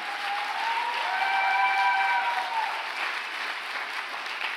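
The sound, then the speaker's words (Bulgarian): An audience applauds in a steady, sustained burst of clapping, with a brief high whistle-like cry rising through it midway. “О, ако ръкопляскаш, ръкопляскай, като че вярваш.”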